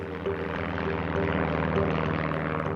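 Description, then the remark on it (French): A Breguet Atlantique propeller patrol aircraft, one of two deployed by the French Navy for a search, drones steadily and loudly, its engines producing a continuous throbbing hum with a low pulsing beat throughout, constant with no voices. “Deux avions de recherche de type Breguet Atlantique sont déployés, ainsi que trois bâtiments.”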